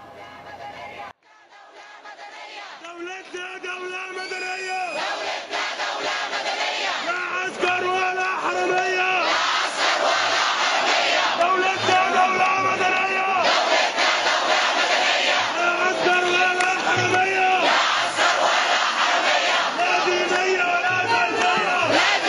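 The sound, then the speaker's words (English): A large crowd shouts and chants together in Tahrir Square in downtown Cairo during the 2011 revolution as a man speaks to the crowd, a dense, loud roar of many voices that swells and pulses steadily, with individual cries rising above the mass. “This is Tahrir Square, the center of downtown Cairo.”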